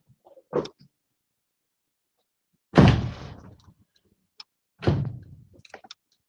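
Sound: balcony door being closed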